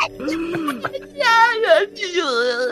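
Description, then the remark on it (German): A person voices a monster's dying scream as Morgul's head dissolves: a low gravelly groan, then two drawn-out, strained, high-pitched wails with a quavering, sobbing tone. “Ähm, Morguls Kopf sich auflöst und damit auch mit einem weiteren Schreien”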